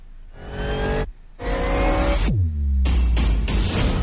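Loud car engines rev in short roaring bursts with harmonic whines, broken by brief gaps and a falling pitch sweep, then more aggressive revving, from the trailer of the film Cars 3.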